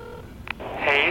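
A phone dialing out: a brief electronic chirp, then a steady tone swells in and holds, heard up close over a quiet low rumble with no one talking.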